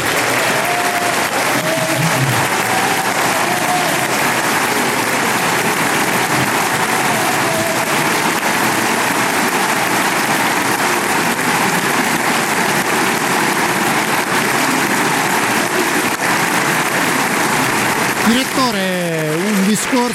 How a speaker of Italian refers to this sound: penso che insomma tantissimi applausi, no?